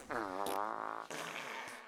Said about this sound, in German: Nach einer Stunde waren die ersten Kröten durch die Pupserei so erschöpft, dass sie schlapp auf dem Boden des Ballonkorbes herumlagen und sich kaum noch bewegen konnten.